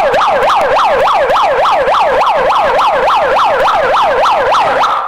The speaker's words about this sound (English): let me show you my siren before I leave.